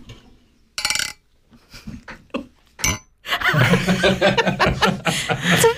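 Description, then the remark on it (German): A few bright glass clinks ring out, as in a toast, followed by a burst of chuckling laughter and clattering that fills the rest of the moment. “ich würde sagen, auf die Änderung von Google-Suche stoßen wir an”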